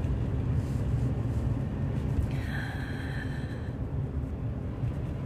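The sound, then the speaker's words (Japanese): A car rumbles along the road in a steady, low drone, with a brief thin squeal rising over it midway through, as the driver swerves to avoid a bird standing in the roadway. Nobody speaks. “今ちょっと鳥さんが車にひかれそうになっててびっくりしちゃったな車道にボケっと止まってる鳥さんがいてやだよ気をつけてよちゃんと運転手さんが避けてくれたからよかったけど気をつけてね”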